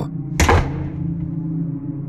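household object, door slamming shut loudly

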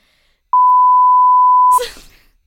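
sound effect, censor bleep tone

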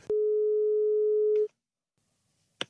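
signal or alarm, telephone call tone

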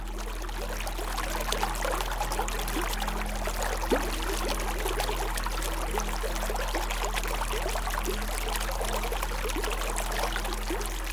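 nature, flowing mountain stream water

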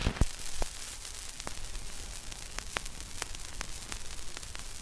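sound effect, vinyl record crackle

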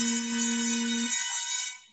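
signal or alarm, mobile phone ringtone

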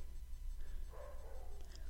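animal, dogs barking

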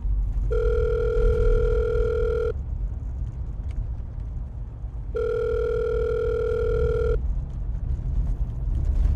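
signal or alarm, phone call ringing tone

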